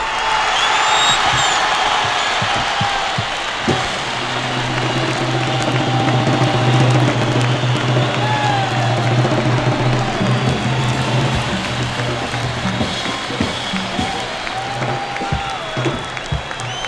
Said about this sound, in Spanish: Un fuerte aplauso para el único, el tremendísimo